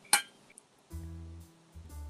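A single bright clink of glasses touching in a toast, ringing briefly, followed by a faint small ping and then a low steady hum in the background; no one speaks.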